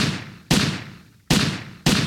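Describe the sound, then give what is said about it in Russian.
Four loud, sharp gunshots ring out at uneven intervals at the entrance to a park, each followed by a long echoing decay, with no voices present. “Как только бабушка с коляской оказываются у входа в сквер, раздается четыре выстрела.”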